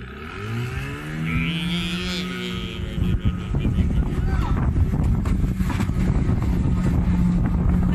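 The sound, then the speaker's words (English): A man pulls the motor on his small outboard motorboat, which revs up, its engine whine shifting in pitch as it drives away, then settles into a steady roar mixed with gusty wind buffeting the microphone. “and now he's he's pulling the motor on his little tiny boat and driving away.”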